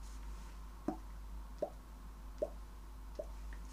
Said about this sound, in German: Genau, der Tropfen auf dem heißen Stein. Der macht dann und ist weg.